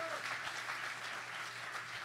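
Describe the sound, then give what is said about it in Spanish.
An audience applauds for the Lord in a steady, dense wash of clapping that holds at an even level for about two seconds, with a low sustained hum underneath and no clear speech. “Si le va a dar un aplauso al Señor.”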